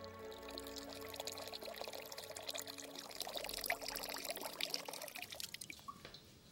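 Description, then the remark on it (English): Water pours steadily into a water clock, a continuous splashing stream with bright trickling and dripping detail, fairly loud, easing off near the end. No one speaks. “the way to simplify the Egyptian clepsydra was not to utilize outflow of water, but to try and obtain a uniform inflow of water”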